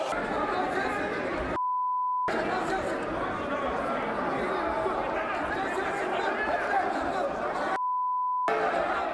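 A chaotic uproar fills the Turkish parliament chamber during budget debates. Many members shout and argue over one another without pause and scuffle after Özgür Özel's words to Interior Minister Süleyman Soylu. A steady bleep tone breaks in twice to censor the commotion.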